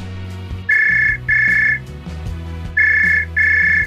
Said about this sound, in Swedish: Eh, Fast nu ringde du till min skotelefon. Det är inte den jag letar efter.